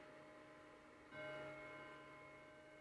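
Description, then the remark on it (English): A clock chimes at nine o'clock in the morning, striking once partway through, its bright metallic tone ringing on and slowly fading over a steady background hum. Fairly quiet, with no voices. “Oh dear, my clock is going to chime nine times.”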